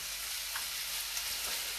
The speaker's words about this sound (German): So, Okay. Ja, jetzt ähm, ist eigentlich nur noch Stuff anbraten und zusammenrühren. Deswegen können wir jetzt hier einen kleinen Fast Forward machen.